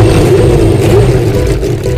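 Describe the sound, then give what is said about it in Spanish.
A loud racing car engine roars steadily for two seconds, its pitch wavering slightly as it revs, with a dense mechanical whir filling the sound and no voices present. “en la parrilla y enciendan motores.”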